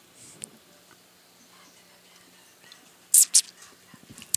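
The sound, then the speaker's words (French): Near-silence, then a sip from a drink: two quick slurping bursts, followed by a few faint clicks and small mouth or cup noises. “Parce que là, je vais prendre une gorgée, puis ça va avoir la fou, parce que personne ne va parler.”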